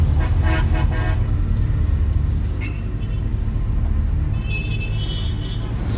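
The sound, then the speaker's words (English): In morning traffic in Baghdad, backed up bumper to bumper by checkpoints, several car horns honk in quick bursts over a steady low rumble of idling engines, then traffic drones on before another higher, thinner horn sounds near the end. “this is the morning reality in Baghdad, basically bumper to bumper traffic all the way through because of these checkpoints.”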